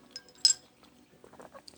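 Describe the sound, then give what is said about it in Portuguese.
A single bright glass clink rings out, followed by faint rustling and soft handling sounds as someone drinks water with a crystal elixir; no speech is present. “Tomei uma aguinha aqui com o elixir de cristal.”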